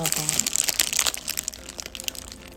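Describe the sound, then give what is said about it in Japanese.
The paper wrapper of a plain takeout Tsukimi burger (not the cheese version) crinkles and rustles in a quick, uneven flurry of crisp crackles that gradually thin out, with a faint murmur of voice at the start. “月見バーガーの肉った音です。”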